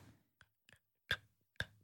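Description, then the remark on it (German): Four sharp clicking sounds from the back of a woman's throat, made one at a time at uneven intervals, fairly quiet, with the last two louder than the first. No talking. “Der sagt, dass ich immer so Klicklaute in meinem Hals hinten machen würde.”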